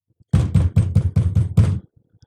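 knocking on a door

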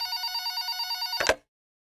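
telephone bell ringing

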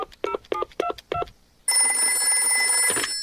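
telephone number being dialed

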